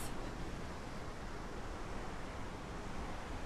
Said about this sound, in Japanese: 音はするんですけれども、あ下の方の滝壺の方は見えてますね。あここの水量はすごいですね。